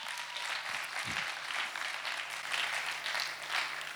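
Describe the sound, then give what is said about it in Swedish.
Audience applause: a steady wash of many hands clapping, dense and even for the whole stretch, with no voices standing out. “En applåd också till han.”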